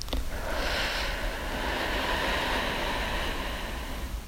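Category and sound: human body sound, deep breathing exercise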